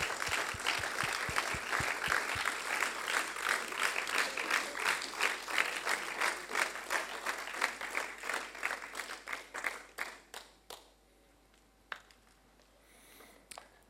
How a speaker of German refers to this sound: Kommt doch auf die Bühne. Geben einen Applaus, dass sie dort den Mut haben, hochzukommen.